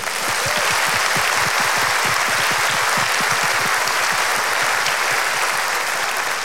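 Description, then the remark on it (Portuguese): Loud, sustained applause from a sizable audience clapping for themselves at a Watoto event, dense clapping filling the whole stretch at an even level, with no voices standing out above it. “E vocês têm que dar uma salva de palmas para vocês mesmos.”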